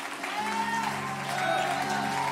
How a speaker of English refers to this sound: Give the Lord a hand clap of praise and lift your voice.